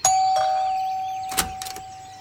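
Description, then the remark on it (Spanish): A doorbell rings with a steady, sustained electronic tone lasting about two seconds, broken by a few short buzzy bursts, as a man in a dark suit rings at the door; no one speaks. “Al día siguiente, sonó otra vez el timbre.”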